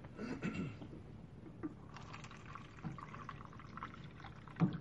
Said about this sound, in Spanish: Ahora te voy a pedir que en este vasito que también pusimos las gotitas pongas agua del purificador. Bien.